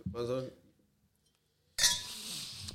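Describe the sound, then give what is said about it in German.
Glasses clink together in a toast, a bright ringing chime that lingers briefly after a short burst of voice, fairly loud. “Stößchen.”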